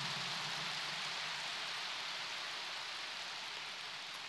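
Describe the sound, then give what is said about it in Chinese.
Dense, sustained applause from an audience, a steady wash of many hands clapping at an even loudness for several seconds, with no voices heard over it. “好，鼓掌响了，我就讲了。”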